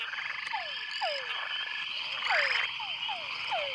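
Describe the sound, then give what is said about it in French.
A male frog's mating call: repeated short, descending chirping calls, about six of them at an uneven rhythm, ring out over a dense, continuous chorus of insects and other frogs in a busy nighttime forest. “Dans la cacophonie des appels, des chants et des bruits de la forêt, les oreilles des dames grenouilles filtrent les fréquences sonores principales de l'appel du chant de séduction des messieurs de leur espèce.”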